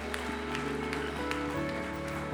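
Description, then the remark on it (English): A church audience claps together for God after a prayer, a dense, steady wash of applause that holds at an even level throughout, with low sustained musical tones humming underneath. “Come on, give God a big clap.”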